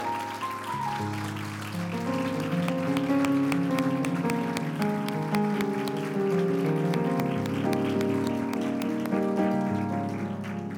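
Steady audience applause, a dense patter of many hands clapping at an even level, blended with sustained instrumental music throughout, with no one speaking. The audience stands and applauds themselves for coming to the event on a rainy Saturday.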